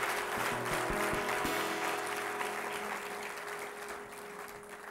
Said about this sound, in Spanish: Vamos a darle un aplauso al Rey de Reyes y Señor de Señores. Gracias Jesús.